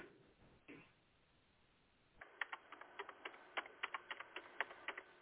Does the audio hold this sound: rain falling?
no